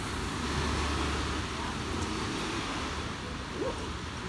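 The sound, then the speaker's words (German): Steady, soft patter of light rain that is slowly easing off, a continuous even hiss that stays level throughout, with a low rumble underneath and no distinct individual drips standing out. “scheint der Regen langsam etwas weniger zu werden.”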